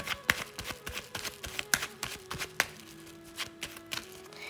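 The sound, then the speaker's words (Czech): Tarot cards being shuffled and drawn: a quick, uneven run of crisp papery flicks and taps, with a soft sustained musical tone lingering quietly in the background. “tahám samé nádherné karty.”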